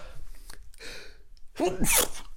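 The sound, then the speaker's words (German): A single sneeze: a breathy intake, then a sharp, loud, hissing burst. It sounds partly stifled, with no talking around it. “Sorry, ich habe mir niesen und ja, ich behalte es weil wenn ich laut nies, ah, wenn ich laut nies, oh mein Gott, es kommt glaube ich nochmal.”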